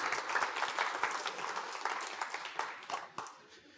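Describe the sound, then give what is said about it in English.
An audience claps for the actors in a steady burst of applause, many hands producing a dense, crackling patter that holds for a few seconds before thinning out and fading toward the end. “You can clap for your actors.”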